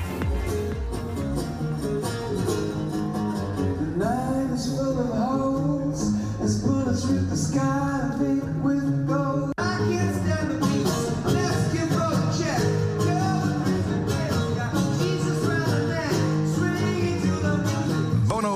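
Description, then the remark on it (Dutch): A surprise live concert in a metro station in central Kyiv, Ukraine, plays without pause, with a singer's voice gliding over a full, loud band that keeps a steady, dense sound for the whole stretch. “namelijk een eh, verrassingsconcert in een uh, metrostation in het centrum van eh, de Oekraïnse hoofdstad Kiev.”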